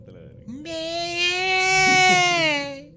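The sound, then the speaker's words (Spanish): A high, thin whimpering cry like a small girl's, one sustained wavering wail lasting a couple of seconds, fairly loud; it is an adult voice imitating the sound. “Imagínate que vas a tomar este, este, vas a tomar agua a, tu cocina, güey, y escuchas allá afuera una vocecita que... Ay, no,”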